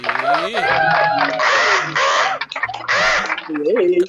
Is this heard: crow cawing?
yes